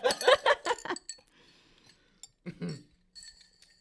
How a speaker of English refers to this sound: Click my glass, wife. Maybe we should click. Shall we click, click straws? metal straw?